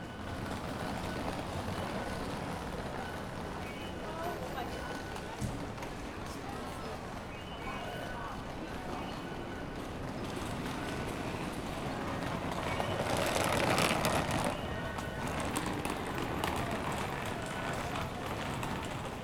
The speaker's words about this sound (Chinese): 你可以从远处听到。这个很多人推着皮箱，然后从四面八方而来，然后我也就跟人群保持一个距离，然后跟着他们移动。